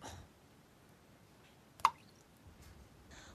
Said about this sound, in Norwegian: Hva skjer med hersens krana? Få den av.